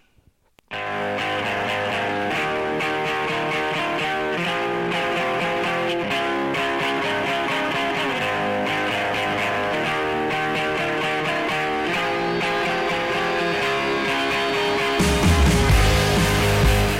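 A loud, full band rock song plays continuously on the radio with dense, distorted guitars and steady instrumentation, swelling into a brighter, crashing section near the end. No one speaks over it.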